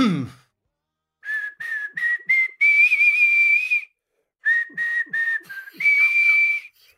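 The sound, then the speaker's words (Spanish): Juan Gómez Jurado whistles a short melody in two phrases, a run of quick bright notes leading into a longer held tone, each phrase separated by a brief pause, clear with no talking. “¿Podrías silbarla?”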